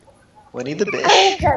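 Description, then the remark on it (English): A loud sneeze bursts out after a quiet moment, with a laugh and a few spoken words tangled around it. “was was that a sneeze?”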